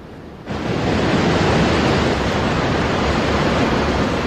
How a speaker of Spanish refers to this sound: Y con este delicioso sonido del mar nos vamos.